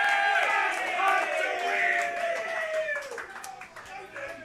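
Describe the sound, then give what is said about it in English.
A crowd at the track cheering, with many overlapping raised voices forming a loud, sustained roar that eases slightly toward the end, with scattered claps mixed in. “I was, I was with the crowd.”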